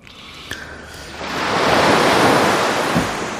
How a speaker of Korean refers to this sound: 이야, 이게 또 여름도 아닌데 약간 쌀쌀해지는데 해변가 파도 소리. 네. 이게 무슨 소리인지 이제 아시죠? 보물 소리입니다.